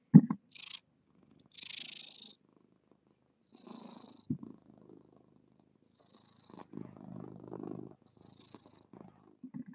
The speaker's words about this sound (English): I'm petting my cat and I don't know if you can hear her, but I'm gonna try and put the mic so you can hear her purring.